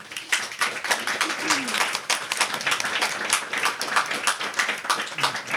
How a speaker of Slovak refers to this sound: poďakovať Slovenskej komore architektov naozaj za kus odvahy, že sa pustila do uh, takejto formy prezentácie e, architektúry 20. storočia a tiež e, a myslím, že si zaslúži potlesk.